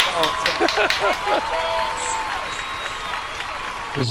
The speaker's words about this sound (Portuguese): Coloca as palmas, coloca as palmas.